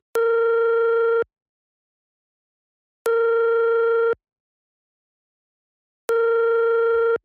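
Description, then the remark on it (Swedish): Three long ringback tones from a phone line, each about a second, evenly spaced with roughly two seconds of silence between, steady and clear with no voices. “då, då tycker jag att vi ringer upp”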